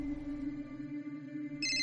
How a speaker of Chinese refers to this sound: 黑暗之中，只有那电话在铃铃铃铃的响着。